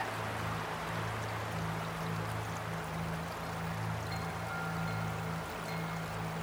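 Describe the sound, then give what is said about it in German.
A steady, continuous rush of flowing stream water, broad and even throughout, with a faint low hum running underneath and no voices. “Und es gibt Muns, die wohnen in einer Baumkrone oder ganz nah am Flussufer, so dass sie immer, wenn sie daheim sind, das Rauschen vom Wasser hören können.”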